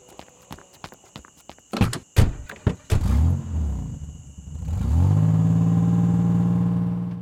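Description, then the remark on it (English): Footsteps approach, then a few solid car door thunks before an engine starts and revs up into a steady, loud drone as the car pulls away. “Come on, get in the car.”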